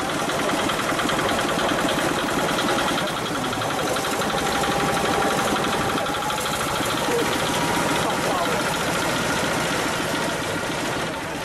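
A small tiller engine runs steadily for the whole stretch, a fast, rattling putter with a busy mechanical clatter that stays loud and even throughout. The engine is on a tiller-riyaka: a two-wheeled riyaka hand cart joined to a walking tiller's engine head, used to carry visiting tourists through farm fields at about 20 km/h.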